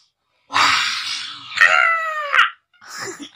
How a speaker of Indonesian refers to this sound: Suara burung gagaknya tuh.